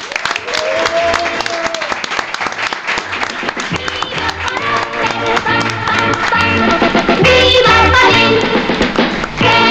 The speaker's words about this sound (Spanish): Eh, lo que reunimos ahora son nuestras manos para despedirte con este fuerte aplauso.